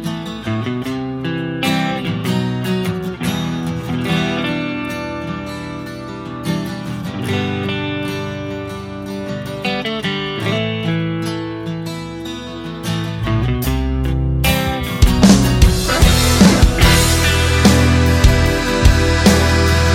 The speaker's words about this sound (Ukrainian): На сам кінець пропоную послухати ту саму легендарну вже пісню